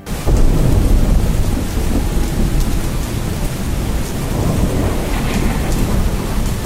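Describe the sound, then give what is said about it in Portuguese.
Heavy rain of the kind typical of the hot months pours down steadily at night on a river steamboat, in a dense, continuous roar, with low rumbling thunder underneath throughout; no voices are heard. “Já é noite, uma forte chuva, daquelas que costumam cair nos meses quentes, desabou sobre nós.”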